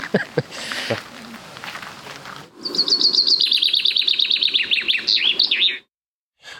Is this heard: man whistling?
no